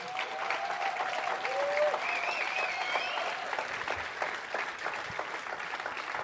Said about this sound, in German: Und zwar, ich möchte einen riesengroßen Applaus und Dank abgeben für unser Camp 4 Leidenschaftsteam. Äh, alle.